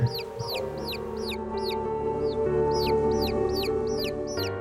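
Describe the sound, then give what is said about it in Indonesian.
Baby chicks peep over and over in high, thin chirps, a steady run of a dozen or so with a brief lull midway, clear above a low background hum. “Nah, ceritanya yang sering terjadi adalah kita serumah kalau malam sering banget dengar suara anak ayam.”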